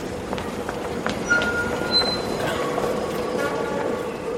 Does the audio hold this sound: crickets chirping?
no